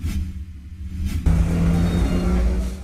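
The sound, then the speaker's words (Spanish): A heavy bus engine idles at a bus terminal in the capital with a deep, steady rumble, then revs up sharply partway through, its louder roar sustained. No one speaks. “Y este viernes aumentó el éxodo de pasajeros en las distintas terminales de autobuses de la capital con destino al interior del país para celebrar las festividades de fin de año.”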